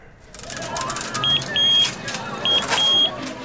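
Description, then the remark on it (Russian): A walk-through metal detector frame beeps in two quick pairs of short, high electronic tones, heard over a steady background hum, set off by a woman in North Ossetia who had a metal object left in her abdomen after an operation. “Звук рамки металлодетектора жительница Северной Осетии Евета Габеева слышала постоянно”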